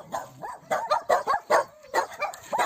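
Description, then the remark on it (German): Several dogs in a neighbourhood bark in quick, repeated bursts, overlapping one another with short yips and whines mixed in, steady for a few seconds. “Okay, die ganze Nachbarschaft bellt.”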